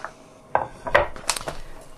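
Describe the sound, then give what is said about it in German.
A few clattering metallic knocks and scrapes as a roasting pan is set down and shifted on a stovetop for cooking pork neck steaks, with no talking. “So, ich habe den Breter jetzt aufgesetzt und ich habe hier so diese fertigen Nackensteaks gekauft.”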